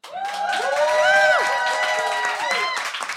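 An audience breaks into applause with cheering and whooping, loud and steady for about three seconds; high voices ring over a wash of clapping.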